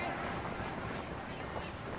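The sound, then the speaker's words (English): Harsh squawking of birds of prey rises out of a dense, steady rushing wash, the raucous calls blending into a continuous, loud din. “Get away, you filthy birds of prey!”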